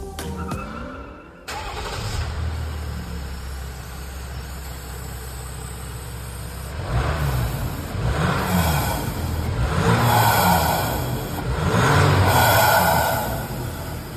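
A Jeep Gladiator's engine starts up and idles steadily with a low rumble, then revs loudly three times in succession, each rev swelling and falling back. No one speaks.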